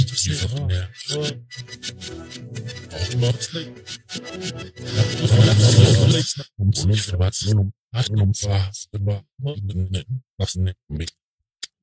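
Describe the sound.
Speech chopped into stuttering, grainy fragments by granular processing, with a dense rasping smear in the middle before it breaks into choppy bursts and short gaps, ending abruptly.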